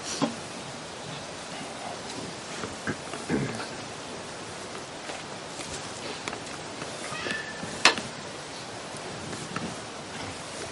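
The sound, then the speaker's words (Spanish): A steady, broad rush of flowing river water fills the scene, with a garden sprinkler's sharp ticking clicks popping out irregularly over it. No one speaks. “Hoy tenemos el río que suena, tenemos el regador mientras suena”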